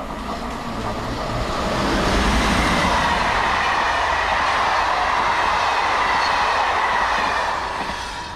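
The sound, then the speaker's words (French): A train rumbles past on the tracks beside a prison, where trains pass about every five minutes nearly day and night, a loud, steady roar that swells in and holds with a faint rhythmic rattle of wheels, then eases slightly at the end. No voices. “je suis du côté Mirador, il y a un train qui passe, euh, il y a des, trains qui passent à peu près les, toutes les 5 minutes, euh, quasiment jour et nuit,”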